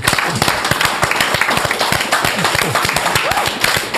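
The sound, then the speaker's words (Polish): Dense, steady applause from a crowd for the technical crew of the television station Idź Pod Prąd, many overlapping claps forming a loud continuous patter, with a few voices briefly rising over it. “więc myślę, że też wielkie brawa o, dla ekipy tak. technicznej.”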